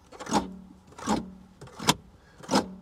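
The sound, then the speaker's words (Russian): Four evenly spaced plucks of rattling plastic interior trim in a Lada Kalina car, played like a gusli, each a sharp buzzy snap followed by a short, low, twangy ring. Fairly loud, with no one talking. “В этом автомобиле есть свои собственные пластиковые гусли.”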